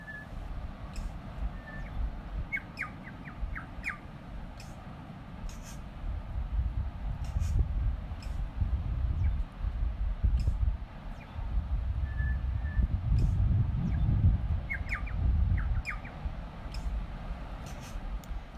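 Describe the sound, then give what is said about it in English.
Two New Zealand birds, one on each side, trade short runs of clear, high chirping calls back and forth, a few seconds apart, over a steady low roar of waves breaking on the beach below. “Now, there was two of them, one on each side, and they were obviously calling to each other, as you can hear.”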